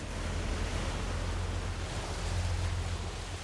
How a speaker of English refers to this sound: Steel on wood. The boat is wrecked, splinters, fragments, cold water, backwash, heavy sea, dark night.